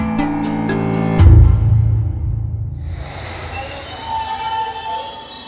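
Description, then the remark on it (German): An underground train squeals loudly along the rails at Embankment Underground station in London, near the Thames, in summer 2023, with sharp high-pitched screeching at first, then a heavy rumble as it passes and a lingering metallic whine in the station, no voices. “U-Bahn-Station Embankment, nicht weit von der Themse.”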